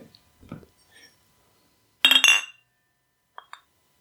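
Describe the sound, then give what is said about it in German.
Glasses clink together in a toast, one bright ringing chime that lingers briefly, followed by a couple of faint lighter taps amid quiet, with soft murmuring at the start. “Prost.”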